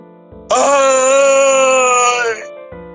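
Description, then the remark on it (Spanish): A single harrowing scream, loud and sustained for about two seconds with a steady, strained high pitch, then cutting off abruptly; a faint low background hum sits beneath it. “Pero qué es ese grito desgarrador?”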